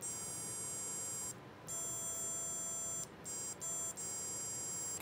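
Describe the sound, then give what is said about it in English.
Smooth, steady electronic sine tones play from a small speaker on a Stemma amplifier and speaker breakout connected to a Circuit Playground Bluefruit. Pressing its two buttons plays different tones. The tones come in several sustained stretches, separated by short breaks and a couple of quick blips, with the pitch shifting between segments. No voices. “And when I press the two buttons, I'm going to play different tones.”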